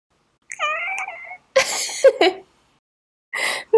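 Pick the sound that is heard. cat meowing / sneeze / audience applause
cat meowing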